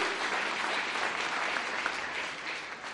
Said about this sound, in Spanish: Denle un aplauso al rey en esta hora. Aleluya.